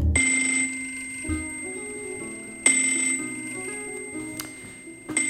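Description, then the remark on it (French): A telephone belonging to the king rings with a bright, metallic bell tone, repeating in a few short bursts with brief gaps between them, clear, with no one speaking. “Laissez le roi répondre à son téléphone.”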